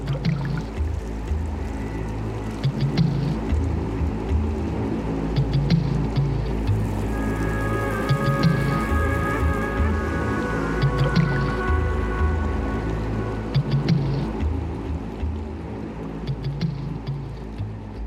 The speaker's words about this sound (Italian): Anche questa canzone che, che, abbiamo appena sentito fa parte appunto di questo …, questo CD.